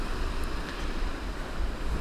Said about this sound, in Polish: Yy, tak, to jest właśnie Bałtyk. Stoję sobie nad morzem.